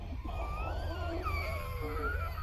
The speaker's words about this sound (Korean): 그리고 그것들의 울음소리. 녹이 슬어 바스라지는 철판을 긁는 듯한 서늘한 울음소리가 몸 구석구석에 소름이 쏟아지게 만들고 있었다.